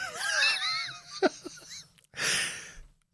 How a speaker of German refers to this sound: Äh, Entschuldigung, ich musste mir gerade noch die Nase putzen.